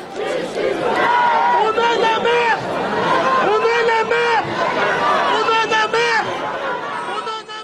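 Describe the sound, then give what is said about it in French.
A dense crowd at a silent march (marche blanche) in Nanterre, France, on Thursday 29 June: many overlapping voices form a steady, loud babble, with scattered raised calls and shouts rising above the murmur throughout. “Une foule très dense, avec en tête de cortège, assise sur le toit d'une camionnette, la maman de Naël.”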